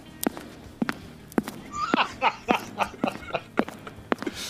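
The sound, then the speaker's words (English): A steady series of distinct footsteps, about nine paces at an even walking rhythm, as someone walks over to grab a phone, with some faint murmuring noise in the middle and no clear speech. “I better walk over to grab my phone.”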